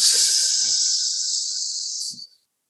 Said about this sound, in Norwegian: Her jeg sitter og puster innom nesen.